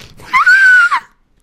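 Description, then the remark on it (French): A voice imitates the scream of a terrified young woman, one sustained high-pitched shriek lasting about half a second with a rising start and a falling end, loud, with no talking around it. “C'était un cri de jeune vierge.”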